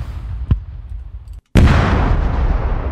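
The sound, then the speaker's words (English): A recorded explosion sound effect: a rumbling low background with a sharp crack, then a brief silence before a loud explosion erupts and its roaring tail rolls on to the end. “So, I, this is I know uh, like you can't have enough explosions uh, recording sounds, but this is like if you don't have much yet, this is pretty much all you're gonna need for a long time.”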